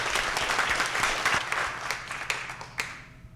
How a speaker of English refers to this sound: So if we can have one more round of applause, everyone too.